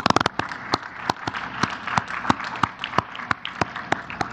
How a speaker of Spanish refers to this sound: Un aplauso.